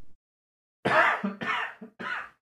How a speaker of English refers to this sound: Excuse me. Are you alright? Yeah, sorry, I was having a cough.